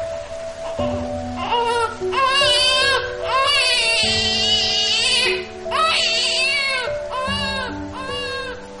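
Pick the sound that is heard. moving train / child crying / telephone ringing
child crying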